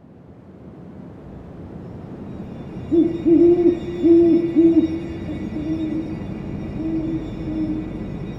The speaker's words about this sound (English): The song of the great horned owl is one of the most recognizable bird sounds. Despite being abundant across their range, most people struggle to find these creatures. This is in part because they do not vocalize frequently.